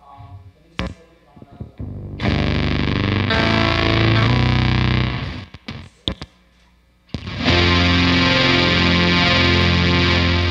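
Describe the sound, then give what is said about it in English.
An electric guitar played through a heavy effects pedal with eight different settings, thick distorted chords swelling and sustaining loud, cutting out briefly, then returning in a dense, buzzing, moody wash. “So I mean, it's a fun pedal, um, and in lieu of using an actual synthesizer”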